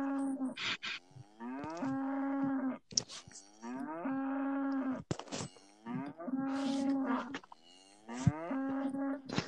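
A cow moos loudly, several long, drawn-out bellowing calls in a row with short breaks between them. No one speaks.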